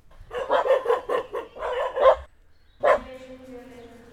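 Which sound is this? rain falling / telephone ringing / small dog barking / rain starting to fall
small dog barking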